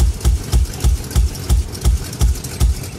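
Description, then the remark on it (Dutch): Tractor engines are started and idle, a loud, steady diesel chug pulsing in an even rhythm about three times per second, with no voices over it. “Wij, trakken, wij starten de tractoren.”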